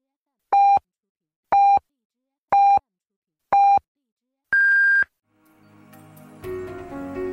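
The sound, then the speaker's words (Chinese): Radio time signal marking twelve noon Beijing time on the Chongqing University of Posts and Telecommunications Sunshine Campus Radio: four short, evenly spaced mid-pitched beeps one second apart, then a longer, higher final tone, followed by a voice beginning softly. “现在是北京时间正午十二点整，您收听到的是重庆邮电大学阳光校园广播台。”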